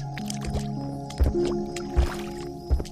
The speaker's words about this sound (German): Die Landschaft um euch herum wird sumpfiger. Große Teile der Wiesen sind mit Wasser bedeckt. Die kleinen Dinos nutzen das natürlich fröhlich aus und rasen durch das Wasser, dass es nur so spritzt.